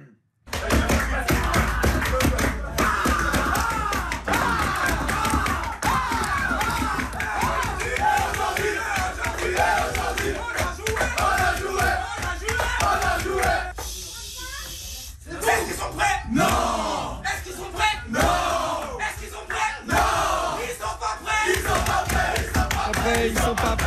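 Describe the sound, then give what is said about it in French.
A loud, dense crowd of men, a football team, shouting and chanting together in a locker room after a third consecutive Ligue 1 victory, with sharp claps and stomps punctuating the noise throughout, briefly thinning before the rowdy chant surges back. “cri d'hier, ah, toujours un moment de partage euh, spécial dans, un vestiaire où ça sent encore l'huile de canf”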